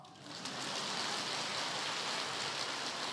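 An audience breaks into applause to thank the master, the dense crackle of many hands swelling within the first half-second and then holding steady and loud throughout, with no voices audible.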